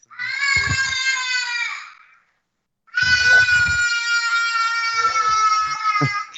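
A baby lets out two long, loud, wavering wails separated by a brief pause, with no talking alongside.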